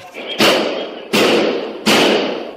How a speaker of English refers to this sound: Body cameras reveal police running toward the sound of gunfire without hesitation.